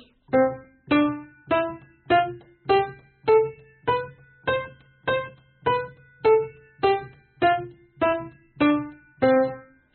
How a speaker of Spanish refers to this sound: El contratiempo, como su propio nombre indica, da la sensación de ir en contra del tiempo, causándonos una impresión de pérdida de equilibrio o de ansiedad. Por ejemplo, una escala tocada a tiempo suena así. y la escala tocada contratiempo suena así.